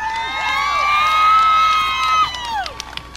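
A large crowd at a race cheers loudly for the winner, the No. 37 car of Rick Milab, many high voices shouting and whooping together in a sustained roar that swells, then fades into scattered yells near the end.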